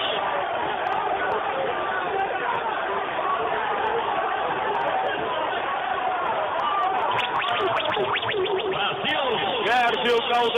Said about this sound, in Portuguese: Barão do Bento Freitas, torcedor que comemora na arquibancada, os jogadores vão saudar a torcida.